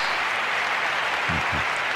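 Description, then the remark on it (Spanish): Steady, dense applause from a large crowd at the closing ceremony of the 1992 Barcelona Olympic Games on the night of 9 August 1992 fills the space, a continuous wash of clapping with a couple of brief low voice-like swells near the end. “Aplausos.”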